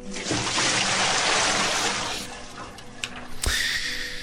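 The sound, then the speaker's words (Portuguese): Water pours and rushes steadily, strongest for the first two seconds, then eases into a lighter trickle with a few small knocks and splashes near the end. “Mas guarda um pouquinho d'água aí,”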